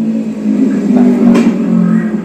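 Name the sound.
motorbike engine revving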